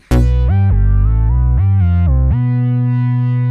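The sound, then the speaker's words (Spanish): A short, loud intro jingle: a buzzy, distorted synth riff that steps up and down through several pitches in quick bursts, then settles on a long held note that fades at the end. “Y aquí viene un intro bien chido. Suena intro chido.”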